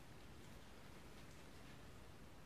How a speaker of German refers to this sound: Entschuldigt mal das Rauschen, aber das soll das Ganze noch ein bisschen unterstreichen.